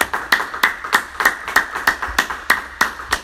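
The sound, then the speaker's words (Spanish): An audience claps together for the Lord in a steady, brisk rhythm, about eleven sharp unison claps over a few seconds, loud and even, with no talking over it. “Una vez más vamos a, a darle un fuerte aplauso al Señor.”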